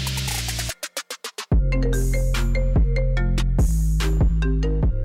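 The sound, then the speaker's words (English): A steady electronic voicemail message tone and a quick run of short phone-style beeps on the Berner phone hotline, then a loud, bouncy synthesized jingle with heavy bass notes plays through to the end. No one speaks. “If you leave a message after the tone, we may have to make it into a podcast.”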